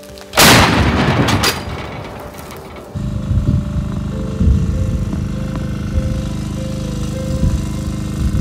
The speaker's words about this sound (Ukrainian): Постріл!